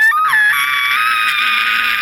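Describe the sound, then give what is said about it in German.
A person voices a monster's scream: one loud, sustained, shrill shriek held for about two seconds, heard suddenly from the other side, with no other sounds around it. “okay, als diese Dancing Lights wieder hochkommen und länger hier verweilen, hört ihr plötzlich von der anderen Seite so ein Schrei.”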